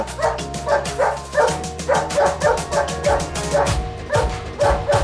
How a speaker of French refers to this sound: Voir les chiens qui sont comme des fous, là, j'avais euh, cette femelle qui était là, juste devant le traîneau et qui se mettait à aboyer quand on ralentissait trop.